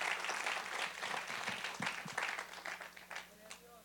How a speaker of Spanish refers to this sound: Den un aplauso al Señor en esta preciosa tarde.